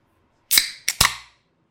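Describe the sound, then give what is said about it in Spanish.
A soda can being opened: a sharp metallic crack, then two quick snaps of the tab, each followed by a brief fizzing hiss that fades within a second. No one speaks. “Una coquita. Un tecito Arizona, frío.”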